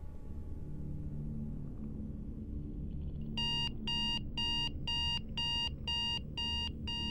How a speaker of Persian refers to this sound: مثل هر روز با صدای آلارم موبایل از خواب بیدار شدم